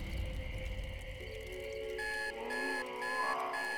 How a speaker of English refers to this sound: Vern groaned as he sat up in bed, slamming his fist against the clock, silencing it.